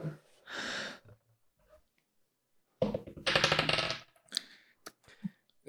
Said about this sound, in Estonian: veeretab täringut.